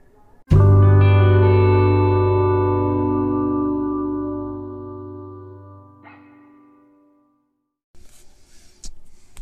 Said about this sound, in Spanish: Nos escuchamos en breves minutos después de este pequeño intro musical.